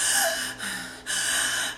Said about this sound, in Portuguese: E se você está com o peito apertado, com a respiração ofegante, a sua tentativa de buscar mais ar, sem dúvida será pela boca.